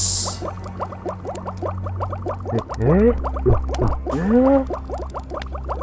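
A dense stream of bubbling and popping swells up as a character is trapped in a bubble by the spell "Sunario Bubble Dust", with rising watery blips layered over a low hum, building into a busy, gurgling bubble effect lasting several seconds with no talking.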